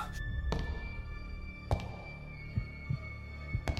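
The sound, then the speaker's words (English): A heavy, pounding heartbeat thuds at an uneven pace, low and muffled, over a steady droning hum with no voices. “I could feel my heart pounding in my chest.”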